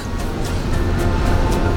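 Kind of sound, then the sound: vehicle, car interior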